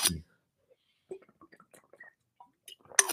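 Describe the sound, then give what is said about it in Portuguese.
Someone sips and swallows water: a short run of soft, wet mouth clicks and gulps at an uneven pace, framed by louder rustling bursts at the start and end. “Deixa eu só beber uma água aqui.”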